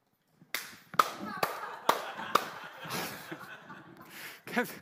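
Five slow, evenly spaced, appreciative hand claps ring out, sharp and deliberate, while people chuckle and laugh softly underneath and after them.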